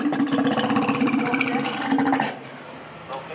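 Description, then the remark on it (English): A walrus at the Point Defiance Zoo gives a deep, buzzing rumble, steady and fairly loud for a couple of seconds, with a pulsing engine-like texture before it cuts off, leaving faint background noise. “Rumble.”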